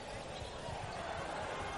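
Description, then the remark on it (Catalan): A basketball player dribbles during a game, the ball thudding against the court in a quick series of dull bounces, set under a steady wash of arena crowd noise and indistinct voices. “cops amb la pilota, cops cops, cops de mà per Blasic”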